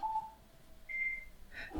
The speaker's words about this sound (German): Hörst du dieses laute Didit ja. am Ende? Hört man das? Ein wahnsinnig lustiger Klingelton.